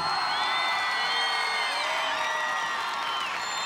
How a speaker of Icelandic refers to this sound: Gefum þeim gott klapp.